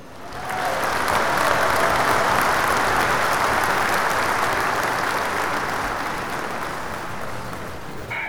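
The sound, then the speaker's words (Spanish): Sustained applause from a crowd for the first-place champion of a game's score ranking, a dense, steady wash of clapping that swells quickly and holds at a fairly loud level for about eight seconds, with no talking over it. “Aplausos ahí el campeón.”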